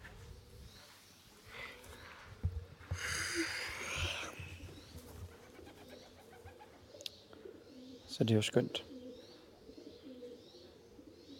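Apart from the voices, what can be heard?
pigeons cooing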